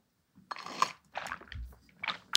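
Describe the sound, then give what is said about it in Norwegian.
Quiet mouth sounds: a few soft, wet sips of water in short bursts, followed by a faint smack of the lips. There is no talking. “fikk du høre at jeg smatta.”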